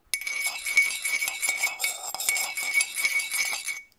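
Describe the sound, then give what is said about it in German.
Continuous bright jingling and clinking as a sleigh is hitched up, like many small bells shaking together, steady and fairly loud for about four seconds with no talking, then stopping abruptly. “deswegen habe ich einfach schon mal den Schlitten vorgespannt. Und das klang so.”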